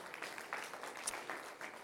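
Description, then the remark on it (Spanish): A church audience applauds for the Lord during a sermon with dense, steady clapping that swells in a few bursts, fairly faint overall, with no voices standing out over the claps. “la aplauso fuerte, Señor, déselo fuerte.”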